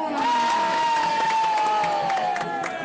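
A crowd cheers and claps steadily, with scattered sharp hand claps under a loud, sustained high-pitched shout or whoop that holds for most of the few seconds.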